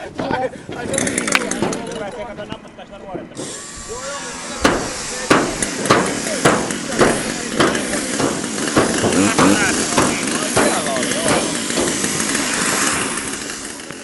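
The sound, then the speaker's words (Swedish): About ten firefighters break up the roof of an apartment building with motor saws, circular saws and other tools: a steady whine of motorized saws runs throughout, punctuated by repeated sharp hammer-like blows at uneven intervals, with muffled voices talking faintly in the background. “Lyftkranen sitter fast på en brandbil långt nedanför våningshusets tak och här uppe befinner sig redan ett tiotal brandmän utrustade med motor och cirkelsågar och allehanda andra verktyg.”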